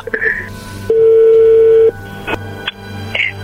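A telephone number is redialed: a steady electronic tone holds for about a second, followed by a few short, sharp beeps over a low background hum.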